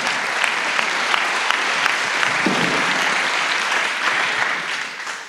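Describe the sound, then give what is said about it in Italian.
An audience applauds all the intercessors, steadily for about five seconds, a dense crackle of many hands clapping at a fairly loud, even level before easing off slightly at the very end. “Facciamo un applauso a tutti gli intercessori che stanno, stiamo intercedendo.”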